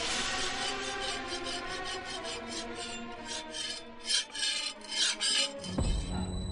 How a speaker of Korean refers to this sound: 뭐 갑자기 칼 가는 소리가 들리는 거예요.